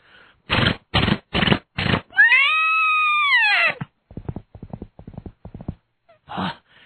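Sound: horse hooves clip-clopping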